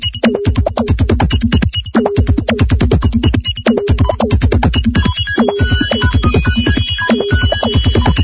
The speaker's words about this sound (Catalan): I els senyals horaris ens indiquen que som dimecres.